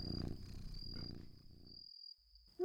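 A forester and a cat named Azja snore while asleep: low, rough snoring rumbles steadily for about two seconds, moderately loud with a purring texture, then fades to near silence before a brief sharper sound cuts in at the end.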